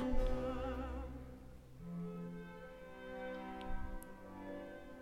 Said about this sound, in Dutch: Dit, dit, instrument heeft op een of andere manier de tand destijds niet overleefd. maar het is een voorloper van de klarinet, zeg.